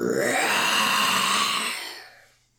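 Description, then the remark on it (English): A single deep, gravelly imitation of a roar made by a human voice, loud and sustained for about two seconds before trailing off, with no speech around it. “Okay, I'm gonna do really deep, like yours.”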